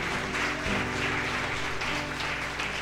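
An audience at a worship service applauding the Lord together, a steady, dense wash of clapping that holds for a few seconds at even volume, with a low hum underneath and no voices standing out.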